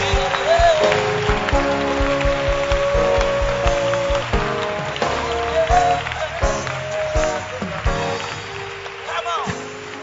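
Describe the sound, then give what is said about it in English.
An audience claps hands steadily for the blood of Jesus, a dense, continuous patter of many hands, with sustained tones of music and voices running underneath. “Can, can you clap your hands for the blood of Jesus?”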